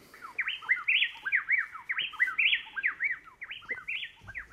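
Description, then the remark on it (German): A male and a female chestnut-backed wren from Ecuador duet, trading rapid, loud whistled phrases that rise and fall in quick overlapping loops, a bright, interlocking song running continuously with no talking. “Das sind zwei Zaunkönige aus Ecuador, Kastanienrückenzaunkönige, und zwar ein Männchen und ein Weibchen.”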